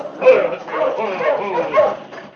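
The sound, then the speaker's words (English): A husky charges toward people, barking and growling in about four rough, harmonic bursts at a steady pace, loud and aggressive. “As they drew closer, the husky charged toward them with a menacing growl.”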